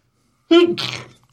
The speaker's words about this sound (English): Oh, excuse me, a little bit of a sneeze there.